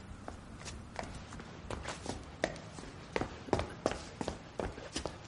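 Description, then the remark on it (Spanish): Quick, hurried running footsteps patter in a steady rhythm on a hard surface in an alley, growing a little louder as a person runs up to a man from the end of the alley, with no voices. “llega corriendo hasta él por el final del callejón.”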